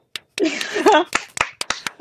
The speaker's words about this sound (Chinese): 但我们还是赢了，掌声鼓励。